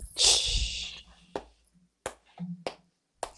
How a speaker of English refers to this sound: little clap for you, my friend.